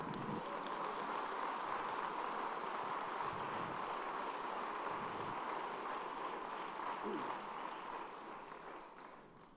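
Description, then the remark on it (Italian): An audience applauds for Jesus in a steady, dense wash of clapping that holds for several seconds before gradually thinning and fading toward the end, with no voices over it. “E noi dobbiamo riconoscerlo e facciamo un applauso a Lui.”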